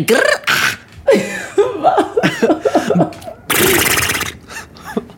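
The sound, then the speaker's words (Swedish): A voice imitates a horse, with wavering whinny-like squeals, snorting bursts and a loud, buzzy lip-flutter near the end, fairly loud with no other sounds around it. “är det där, är det där pruttljud? Nej, ett hästljud.”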